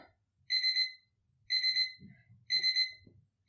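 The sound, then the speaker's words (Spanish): An electronic alarm clock beeps in three evenly spaced bursts, each a rapid high-pitched trill about half a second long, fairly clear with faint low background rustle between. “ahora suena el despertador.”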